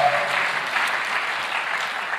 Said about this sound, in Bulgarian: О, защо не дадеш на Бога едно истинско дарение на ръкопляскане?